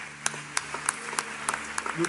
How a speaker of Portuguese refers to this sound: Você pode celebrar o Senhor com as suas palmas?